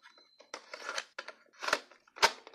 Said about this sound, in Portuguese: Vai até seu guarda-roupa e tira de lá no fundo um pequeno gravador, presente de seu pai quando ainda era criança. Coloca a fita no gravador e ouve a música.